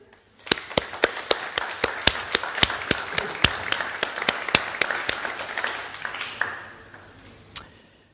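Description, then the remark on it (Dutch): An audience applauds in honour of Jesus after a healing testimony, a dense wash of clapping punctuated by sharp, evenly spaced loud claps for about six seconds before it dies away, with one last clap at the end. “Zullen we hem een applaus geven?”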